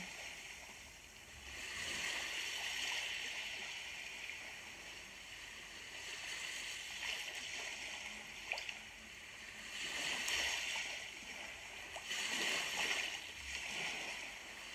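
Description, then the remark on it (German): Soft sea waves wash in and out in slow, gentle surges, small waves lapping with a steady hiss and occasional faint splashes and no one speaking. “Die Möwen fliegen weiter und du hörst die ruhige Bewegung von den leichten Wellen.”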